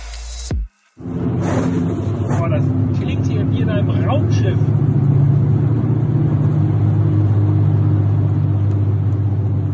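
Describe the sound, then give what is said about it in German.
A steady, loud low-pitched grinding drone from a worn car wheel bearing, droning continuously beneath road rumble inside a moving car after a brief cut near the start; from about 50 it drowns out nearly everything, the engine barely audible. “Aber das hat nun mal leider, es war wirklich so ein malendes Geräusch.”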